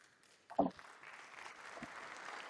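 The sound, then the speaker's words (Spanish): Audience applause following a government speech announcing a newly enacted law: a dense, steady wash of many hands clapping that swells in after a brief low thump and continues evenly at a moderate, fairly soft level, with no talking. “Me arriesga el gesto este de aplausos que hacen los...”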